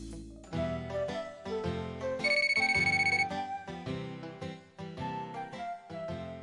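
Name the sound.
mobile phone ringing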